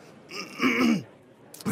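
A single throat clearing, a rough, gravelly rasp lasting under a second, moderately loud, followed by a short quiet pause and the start of another sound.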